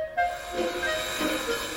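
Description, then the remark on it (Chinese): A train travelling to Barrington rolls along with a steady, hissing rumble and a thin high whine over it, continuous for the whole short stretch with no voices. “华生跟安伯黎老人都想不到，他们风尘仆仆搭火车到巴林顿，再转搭计程车到埃尔曼牧师公馆，居然什么线索都没找到。”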